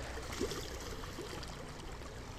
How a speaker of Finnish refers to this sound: Laineet liplattavat monelle tutun Sääksmään sillan rantakiviin.